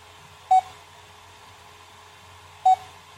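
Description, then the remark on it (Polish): Two short, bright electronic beeps from a device processing a photographed image of text, signalling that it is still working while it struggles to recognize the image. The beeps are spaced about two seconds apart and stand out clearly over a quiet background hum, with no talking. “Pika sobie pika, ma problemy z rozpoznaniem.”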